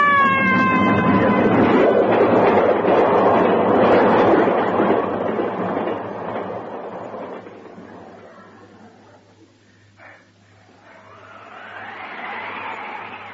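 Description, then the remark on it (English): A train roars past on a railway, a high whistling tone at the start over a loud rumbling rush that fades away after several seconds, leaving quieter sounds behind. “I lay gasping on the railway bank.”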